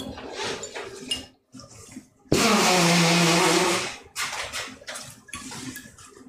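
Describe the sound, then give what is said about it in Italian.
A loud, sustained nose blow lasting nearly two seconds, a honking, rushing burst of air. Shorter bursts of noise and brief voices come before and after it. “No, devo soffiarmi il naso.”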